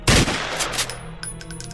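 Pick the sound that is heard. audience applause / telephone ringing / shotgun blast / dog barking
shotgun blast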